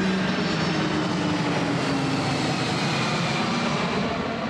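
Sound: airplane engine noise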